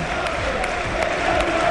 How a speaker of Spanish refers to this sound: No, no, no, me suena. Mucha personalidad. No, la, la, tribuna, la tribuna le está respondiendo con aplausos a José Mourinho.